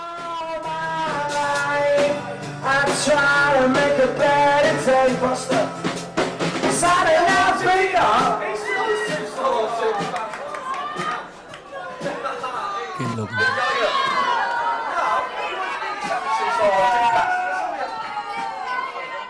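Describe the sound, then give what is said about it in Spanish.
A large, dense concert crowd roars and cheers continuously, many voices layered together, before the sound shifts into a drawn-out collective groan of disappointment toward the end. “por eso que la gente está animada. Sí, no, y se escuchan los lamentos al final, ¿no?”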